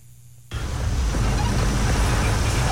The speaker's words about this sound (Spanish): Y entonces no me dice dónde es, pero vamos a escuchar este otro de aguacero... Eh, me mandan otro video.